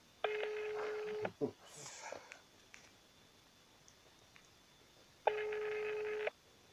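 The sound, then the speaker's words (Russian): A telephone ringback tone sounds twice on a call to the office of the acting deputy head of the city of Biysk, Russia; each steady buzzing ring lasts about a second, separated by a long pause with faint rustling, and no one answers. “Ну что-то не берут. ФСБ предупредила не брать трубку.”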